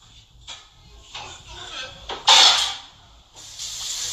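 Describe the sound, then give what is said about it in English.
Water runs from a tap in uneven hissing bursts, splashing louder about midway, as a plate is rinsed off under the stream before going into the dishwasher. “Take a plate, rinse it off, and put it in the dishwasher now.”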